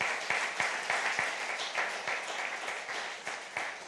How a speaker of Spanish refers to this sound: Denle un aplauso. Fuerte, fuerte.